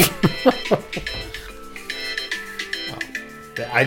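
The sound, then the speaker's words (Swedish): A mobile phone ringtone plays a bright, electronic melody of sustained, stepping notes for several seconds, moderately loud, while people talk and laugh over it. “Jag fattar inte vad det är med min jävla telefon.”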